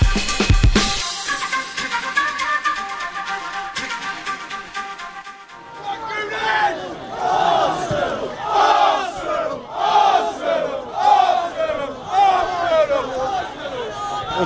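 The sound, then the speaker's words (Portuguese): A large crowd of Tottenham supporters chants rhythmically in loud, swelling waves as they arrive at the Emirates Stadium on a cold, rainy Saturday morning, many voices shouting together, after a few seconds of busy, noisy street ambience. “tentar mostrar pro pessoal no Brasil como é que é o clima quando chega a torcida do Tottenham, porque realmente eles chegam causando”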